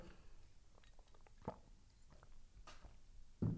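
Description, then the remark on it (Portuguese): Quiet mouth sounds of someone taking a sip of water, with soft wet clicks and a gulp or two, then a short louder knock near the end, likely a glass being set down. “Tenho que beber um, um golo d'água.”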